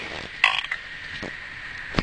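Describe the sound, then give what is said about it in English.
A single short, muffled burp with a croaky, raspy edge, made while the person holds and covers the microphone, followed by faint rustling and a couple of soft knocks against a quiet background hiss. “What I'm trying to do when I burp is hold the microphone and cover it.”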